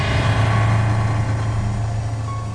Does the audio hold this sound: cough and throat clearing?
no